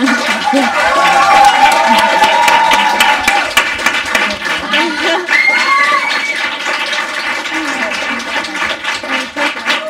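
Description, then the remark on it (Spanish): Sustained audience applause given as thanks to a guest: a dense, steady wash of many hands clapping for about ten seconds, with a few voices and calls rising over the crowd. “e lo agradezco mucho y lo único que os puedo agasallar es un aplauso que espero que a gente me acompañe.”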